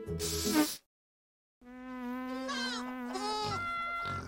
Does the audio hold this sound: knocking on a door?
no